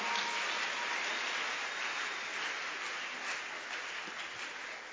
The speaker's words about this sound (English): Clap your hands for the Lord and stand to your feet. Oh, give the Lord a wonderful clap offering. Give the Lord a wonderful, wonderful, wonderful, wonderful.